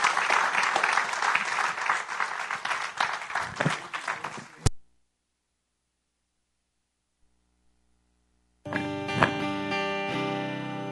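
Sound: audience applause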